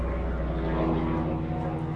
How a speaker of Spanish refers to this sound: Así como ese helicóptero, que alguna cosa difícil está buscando. Ok, me detuve porque detuve el audio porque pasó demasiado cerca.